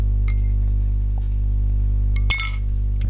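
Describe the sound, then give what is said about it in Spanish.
A glass clinks a few times while someone drinks water, sharp bright taps over a steady low hum, with a louder clink near the end and no talking. “te dejaré pensar en lo que yo tomo un poquito de agua.”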